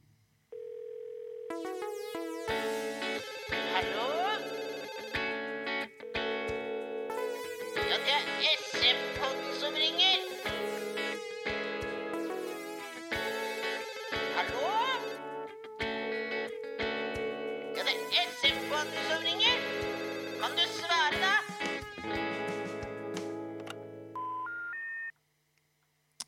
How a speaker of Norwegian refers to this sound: Yes, nå skal vi kjøre eh om ikke bare debut, men verdenspremiere på jingle.